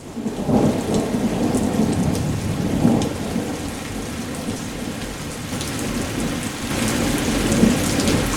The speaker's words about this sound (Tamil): செம்ம மழை அடி பிச்சு உதறது ஃபுல்லாக தமிழ்நாடு அச்சீவன் சென்னை பாண்டி இங்கெல்லாம் வந்து செம்ம மழை பாருங்கள் அப்படியே பயங்கரமாக இருக்குது நம்ம மழை இந்த மழையில் கூட ஒரு இசை இருக்குது